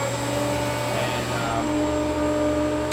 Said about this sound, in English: This is called a this is a screw pump from Atlas Copco.